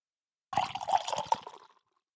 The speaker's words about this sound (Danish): Så prøver jeg at se, om jeg kan hælde op, uden at spille alt for meget.